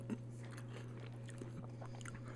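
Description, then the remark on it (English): Crisp crunching of someone biting and chewing crunchy salad with croutons and creamy ranch dressing, a quick run of small crackly bites over a steady low hum, with no talking. “really like the, the crunch of the croutons.”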